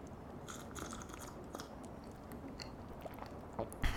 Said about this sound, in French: Euh, je suis en train de boire mon petit thé, alors attendez, je vais prendre une petite gorgée.